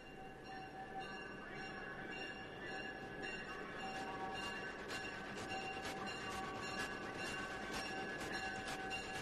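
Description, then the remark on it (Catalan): A train rolls steadily along the rails, a constant rumble with high metallic whining tones and a quickening series of rhythmic wheel clacks in the second half. “I anem a agafar un tren.”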